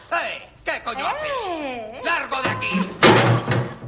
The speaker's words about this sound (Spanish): Le cierran la puerta.